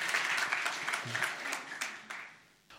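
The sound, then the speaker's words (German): An audience applauds with dense, steady clapping that holds at moderate loudness, then gradually thins and fades toward the end. “Ein Applaus bitte.”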